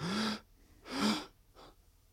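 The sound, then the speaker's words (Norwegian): Two sharp, breathy inhales drawn in quick succession as part of a breathing exercise, followed by a brief fainter breath; no talking. “Jeg så en sånn video om at du må, hvis du trakk inn pusten to ganger igjen, sånn”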